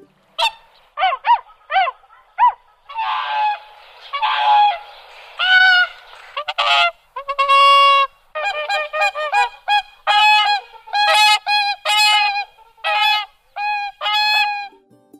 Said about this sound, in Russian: у Кликуна, наоборот, такой звучный, яркий, я бы сказал, голос, громкий, такой трубный. Ну, собственно, благодаря этому у него и появилось название «Кликун». Он кликает так, что издалека слышно